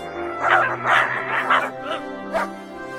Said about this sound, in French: L'apparition de l'étrange équipé avait ameuté tous les chiens des environs, qui aboyaient d'un air menaçant.